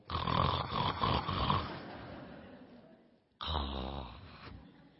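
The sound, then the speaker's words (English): Two long, rasping snores from a woman who fell asleep during the final resting pose of a class, the first loud and rattling before fading out, then a brief pause and a second guttural snore. Clear, with no talking. “yes, she fell asleep and started snoring in the middle of final resting pose.”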